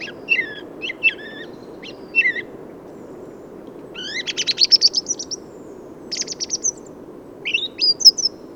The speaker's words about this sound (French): Les grives sont bien et vite nourries, alors le reste du temps, pourquoi ne pas chanter Chant personnel, confus, sans la structuration du printemps, une sorte de chant d'entretien.